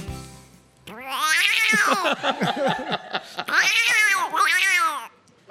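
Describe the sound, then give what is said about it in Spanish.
A person loudly imitates a cat caterwauling, producing long wavering yowls with rising and falling pitch, broken by a quick stuttering stretch in the middle. “Gato.”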